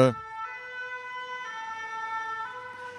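A fire engine's two-tone siren blares outside, switching between its high and low notes about once a second, fairly constant in loudness over faint background noise.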